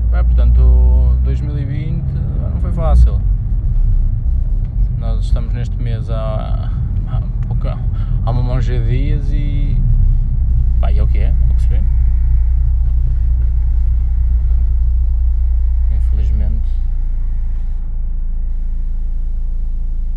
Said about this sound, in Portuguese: o trânsito está um bocado. um bocado absurdo, para o meu gosto.